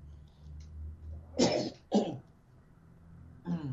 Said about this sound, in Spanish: un estornudo para cerrar el programa.